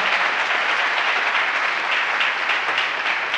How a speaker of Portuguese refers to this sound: Dá um aplauso aí.